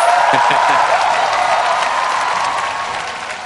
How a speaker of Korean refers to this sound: 그래서 우리나라 대한민국 학문과 예술에 힘을 주시기 위해서라도 여러분 큰 박수를 한번 부탁드리겠습니다.